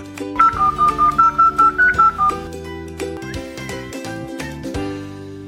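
A quick run of about eight evenly spaced telephone dialing beeps sounds over a musical backing, then the music carries on alone for a few seconds. No one speaks.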